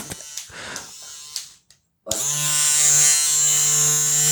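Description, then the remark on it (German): A few soft clicks and handling noises, then a brief pause before a small battery-powered electric trimmer with a small work light switches on, vibrating and buzzing steadily and loudly with a strong, even hum. “Der hat nicht, der macht nicht nur vibrierende Geräusche, der vibriert auch wirklich und er hat so ein kleines Arbeitslicht, wie so eine Bohrmaschine.”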